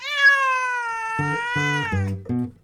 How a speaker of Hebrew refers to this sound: מי שחשב חתול צדק, מי שחשב חתול צדק, מי שחשב חתול צדק, צדק, צדק, צדק.